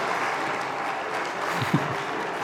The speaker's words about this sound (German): Da ist aber Standing Ovations.